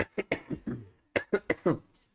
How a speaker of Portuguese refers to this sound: Porra, tô vontade de tossir.